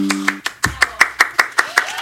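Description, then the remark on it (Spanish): A steady run of about ten crisp, even hand claps, fairly loud, paced like a brief round of applause welcoming a guest on a program, with a short hum of voice at the very start. “aplauso viejo.”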